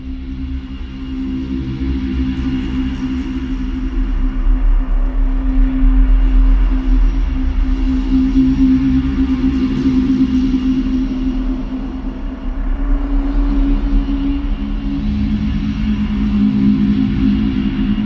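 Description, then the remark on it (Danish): An electronic music piece composed by the guest with strong inspiration from Else Marie Pade plays on its own, built from deep sustained drones and layered humming tones that hold steady and fairly loud, with a brief dip before swelling back. “Og du har også taget et af dine egne numre med, som du har øh, komponeret med stor inspiration fra Else Marie Pade, og lad os lige prøve at høre lidt af det.”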